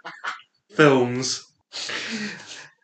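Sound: dog sneezing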